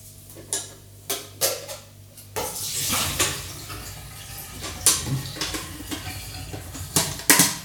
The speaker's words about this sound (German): So. Noch das Wasser auskippen.